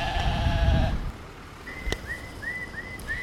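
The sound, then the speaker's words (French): A single loud, wavering sheep bleat lasts about a second, followed by a series of short, high bird chirps repeating against quiet outdoor background noise. The sheep is among about thirty ewes grazed by urban shepherds around Saint-Denis, Aubervilliers and La Courneuve, France. “Les bergers urbains font pâturer une trentaine de brebis ici ou là sur un rayon de 12 km entre Saint-Denis, Aubervilliers et La Courneuve grâce à des contrats passés avec des collectivités, des bailleurs ou des privés.”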